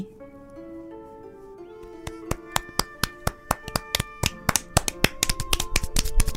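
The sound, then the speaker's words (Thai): Soft sustained music plays, then a few isolated claps ring out, starting from one child, and gradually multiply as more hands join from here and there, building into scattered, growing applause from a group of children in a classroom. “มีเสียงปรบมือดังขึ้นมาจากเด็กคนหนึ่ง จากนั้นเสียงปรบมือก็ดังขึ้นจากตรงนั้นตรงนี้”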